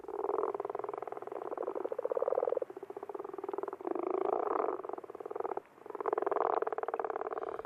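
A dense chorus of toads trills continuously after dark in the puddle-filled unpaved yard of a horse-riding facility in Munich, Germany, several overlapping calls forming a steady buzzing drone that swells and dips in waves, loud with no voices.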